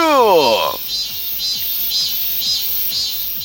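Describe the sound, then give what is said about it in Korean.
A cicada buzzes in a steady, high-pitched drone that pulses in regular waves, with a brief falling tonal sweep at the very start. “자, 2번과 3번은 성대모사 단어를 찾아라 코너에서 청취자분이 성대모사 매미술이었습니다.”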